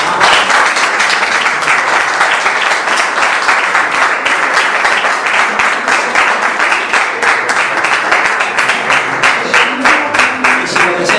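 Sustained audience applause at the end of a talk, thanking the audience for attending: a dense, steady wash of many hands clapping at a loud, even level for about eleven seconds, with faint voices mixed in underneath.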